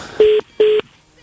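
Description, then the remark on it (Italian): Two short, evenly spaced telephone dialing tones as a phone is dialed to call someone back after a dropped call, each a steady electronic beep lasting about a fifth of a second, with a brief pause between them and no talking. “Eh, vabbè, adesso lo, lo richiamiamo.”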